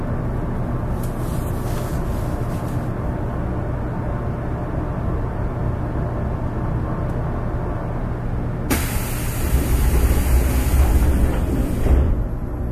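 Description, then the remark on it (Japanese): A JR 811 series electric train on a rapid service from Orio to Kashii, departing bound for Arao: a steady rumble with a low motor hum that swells suddenly brighter and louder partway through as it picks up speed, with no one talking. “JR811系 快速 折尾から香椎まで”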